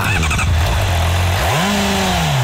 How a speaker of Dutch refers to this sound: Maar het zit goed geluid in. Ondanks... Ondanks gewoon de standaard uitlaat hoor. Een mooie viercilindertje. Standaard? Standaard Honda CBR 600 RR geluid.